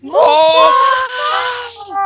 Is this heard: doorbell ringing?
no